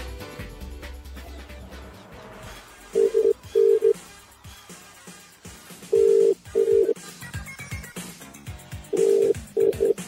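An outgoing phone call rings on the line: three double-burst ringback tones repeat every few seconds, loud and steady over a busy background of music-like sound and faint clicks.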